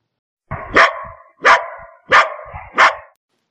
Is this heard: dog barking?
yes